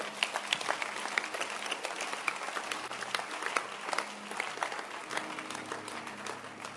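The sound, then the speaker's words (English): An audience breaks into sustained applause, many hands clapping in a dense, steady wash of sharp crackling claps that carries on throughout without pause, with no one speaking. “Clap your hands for if you love the Lord.”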